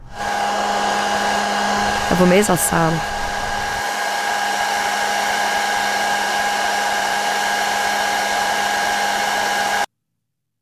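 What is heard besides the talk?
hair dryer running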